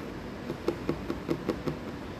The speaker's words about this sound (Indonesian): Oh, oh, oh, oh. oh sakit bre gue ketok ini nih hmm.